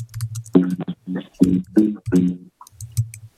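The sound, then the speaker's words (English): Irregular clicks of typing on a computer keyboard, moderately loud, with a low humming, tonal sound running beneath the keystrokes. “Oh, don't use my typing as uh, an opportunity to uh, sneak in some bass.”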